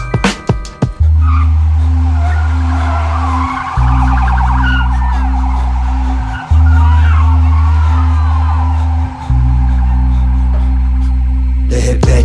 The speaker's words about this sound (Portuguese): O ronco dos motor, o canto dos pneus.